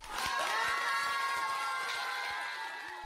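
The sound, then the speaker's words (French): A crowd cheers and whoops with sustained, steady applause filling the whole moment, high excited voices layered over dense clapping that stays loud throughout and eases only slightly at the end. “et ça, ça s'applaudit, bravo”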